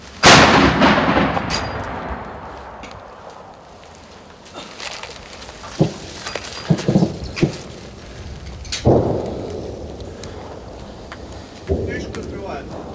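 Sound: cannon firing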